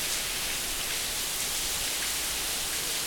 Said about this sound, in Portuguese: Eu ia falar de outra coisa, mas eu tô aqui olhando a chuva e. Nossa, cheiro de chuva é outra coisa também que eu gosto pra caramba.